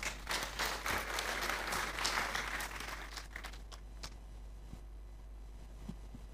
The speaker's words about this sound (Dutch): Dankjewel. Ja, mag alleen maar applaus.